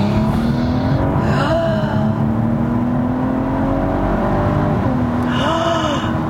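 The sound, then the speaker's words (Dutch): A car engine roars as it accelerates hard up to 100 km/h on a road, its pitch climbing steadily with a couple of quick drops at gear changes, loud. “ja, 100 ik, durf niet meer. Ik ga nu remmen.”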